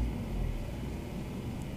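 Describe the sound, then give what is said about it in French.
In the evening, a steady low rumble of hundreds of cars idling and barely creeping along in a traffic jam, continuous, with no distinct horns or voices standing out. “Des centaines de voitures partout qui avancent à peine.”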